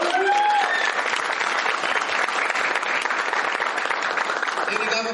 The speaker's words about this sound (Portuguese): gostaria de uma salva de palmas para ele.